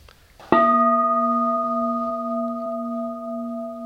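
A single meditation gong is struck once, ringing out with a rich, steady tone that slowly fades while sustaining clearly, with no one speaking, as children silently follow the fading tone during a meditation.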